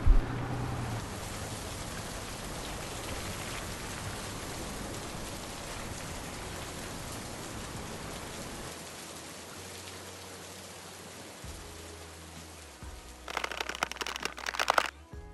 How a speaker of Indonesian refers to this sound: Lantas mereka pulang berdua meninggalkan sang pemuda itu di bawah guyuran hujan yang mendaru deras.